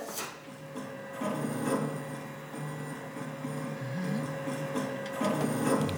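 A printer runs steadily with a sustained mechanical hum and a thin high whine, broken by intermittent clicks and rattling bursts as the print head moves back and forth. No one speaks.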